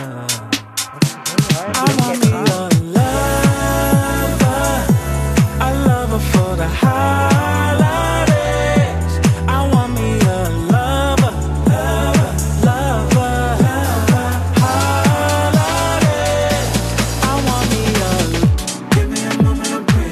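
A festive Christmas song plays loud, with a steady pulsing bass beat and bright melodic lines running continuously for the full stretch before briefly thinning out near the end.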